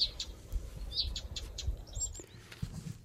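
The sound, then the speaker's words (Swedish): A Blyth's reed warbler, singing in berry bushes at Norrsundet on Bergö, sings a quick, repeated series of short, high chirps and whistled notes over a soft low outdoor rumble, with no voices. “Jag skulle kalla den busksångare.”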